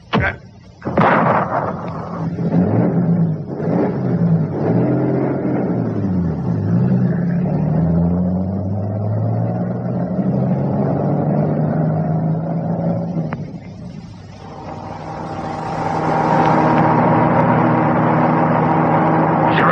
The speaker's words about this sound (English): Come on, start up the car.